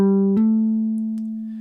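A single plucked guitar note rings, then a quick hammer-on snaps it up to a slightly higher pitch that sustains and slowly fades. These are the final two notes of a pattern on one string, played with no talking.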